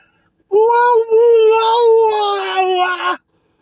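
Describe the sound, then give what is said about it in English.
A voice imitates a tiger whose paw got into a boiling hot pot of water. One sustained, strained wail about two and a half seconds long, high and nasal with a slight waver, loud, then cutting off abruptly. “That is the sound of a tiger turning off a boiling hot pot of water, and his paw got in it just a little bit, just enough to make the tiger go.”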